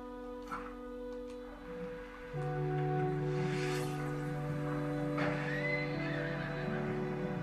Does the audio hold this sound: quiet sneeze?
no